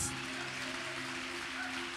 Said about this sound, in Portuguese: Dá um aplauso para Jesus, irmãos.